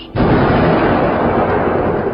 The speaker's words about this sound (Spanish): Del trono salían relámpagos y estruendos de truenos.